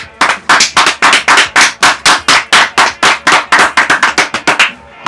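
Japanese-style applause: about twenty loud, sharp hand claps in a steady, even rhythm, roughly four per second, with no voices over them.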